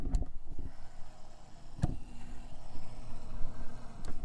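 A steady low motorized hum with a faint churning, swishing wash of circulating water, moderately quiet, broken by a few sharp clicks, from a small sous vide heater heating and regulating the water temperature in a clear plastic container with chicken cooking in it. No one speaks.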